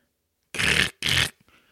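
A voice imitates a dog pushing its water bowl across a corridor floor with its nose: two short, rough, loud bursts in quick succession, followed by a faint breath.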